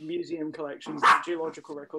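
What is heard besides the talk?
dog barking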